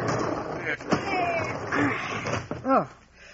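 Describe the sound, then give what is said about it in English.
A heavy barn door is shoved open with a couple of dull thuds and a groaning creak against a rumbling, noisy background, ending in a louder scraping squeal. “Come on, help me shove this door.”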